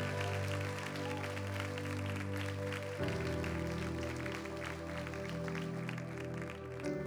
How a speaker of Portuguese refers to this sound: Dá uma salva de palmas alto no seu lugar.